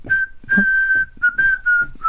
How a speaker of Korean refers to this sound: 휘파람 많이 불었어요, 어렸을 때. 많이요.